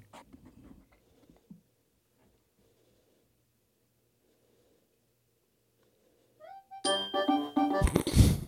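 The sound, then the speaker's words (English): After mostly quiet handling noise, a kitchen timer for pasta goes off near the end: a short run of rising electronic tones, then a loud, busy jingle. “Your pasta timer is up.”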